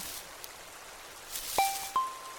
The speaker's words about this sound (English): I set out a tray to catch some rain for water.